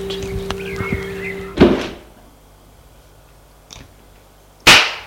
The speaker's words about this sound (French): Il entre. Elle ferme la porte.